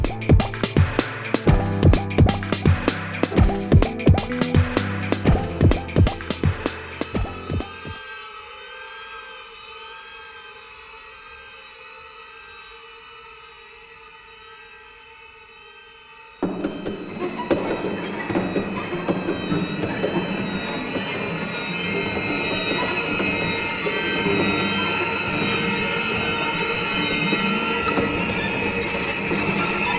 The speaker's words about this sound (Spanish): Lo que estamos escuchando ahora mismo no es tal vez la música más fácil de oír, ni desde luego la más memorable, pero igual está constituida por un lenguaje que os es un tanto familiar porque lo habéis escuchado antes.